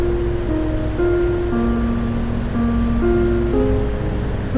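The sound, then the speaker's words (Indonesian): Steady, even rain hisses over open water with a low rumbling surf beneath, while soft sustained musical tones drift over the top. No voices, just a continuous, moderately loud wash of sound. “Apakah mungkin ada juga hujan yang jatuh di lautan?”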